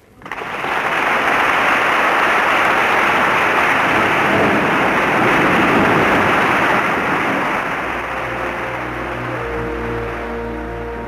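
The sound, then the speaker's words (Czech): Parliament deputies rise and break into loud, sustained applause for Prime Minister Klement Gottwald's speech, a dense continuous roar of clapping that eases slightly near the end as a faint tonal sound emerges beneath it. “poslanci povstali a potleskem kvitují řeč předsedy vlády Klementa Gottwalda.”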